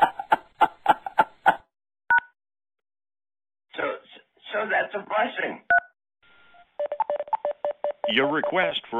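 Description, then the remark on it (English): A rapid run of telephone keypad touch-tones on a phone chat line, including the pound key, several short beeps in a row, followed by single tones between stretches of talking and another quick burst of keypad beeps. “When done, hit the pound key so I can play it back to you for your approval.”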